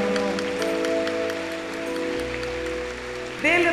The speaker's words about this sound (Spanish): ¿Cuántos dicen amén? Denle otro fuerte aplauso al Señor.